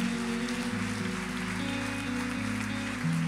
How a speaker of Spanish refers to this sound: ¿Alguien puede creer a eso y puede decir gracias Dios por eso? Sí, dale un aplauso fuerte a Dios de nuevo.